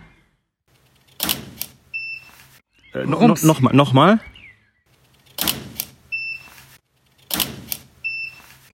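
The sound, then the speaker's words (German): A large-format camera shutter fires a 1000 watt-second studio flash three times, each sharp mechanical clack followed by a thin, high recharge whine; a man speaks briefly between the first and second shots. “Das macht Wumms beim Auslösen und zwar nicht nur das Objektiv selber, sondern da wird natürlich jetzt dieser dicke 1000 Watt Sekunden Blitz mit ausgelöst, der dann hinterher Fieb macht.”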